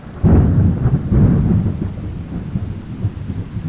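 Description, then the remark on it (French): A loud crack of thunder from a thunderstorm that is not far off bursts in after a lightning flash and rolls into two heavy low rumbles, fading into a steady storm wash with rain pattering in the background. No voices. “Je compte les secondes qui séparent le flash du coup de tonnerre.”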